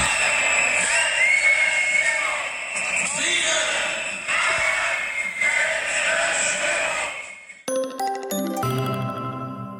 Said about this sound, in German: Allein in Köln war die Innenstadt mit vielen tausenden Demonstranten angefüllt, die sich gegen die Corona-Zwangsmaßnahmen wenden.